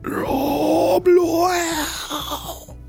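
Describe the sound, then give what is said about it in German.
A man's voice imitates the groan of a dying creature that sinks and curls in on itself: a long, strained, low moaning sound with a brief catch near the middle, then trailing off and fading out. “da fließt das Gesicht weiter nach unten und die ganze Kreatur scheint in sich hinein zu sinken, sich so zu verkrümmen.”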